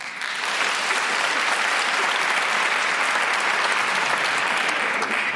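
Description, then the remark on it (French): An audience claps steadily for about five seconds, those who believe in astrology applauding when asked, a dense, even patter of many hands at a fairly strong level, with no one speaking over it. “Par applaudissement, montre qui croit en l'astrologie dans la salle”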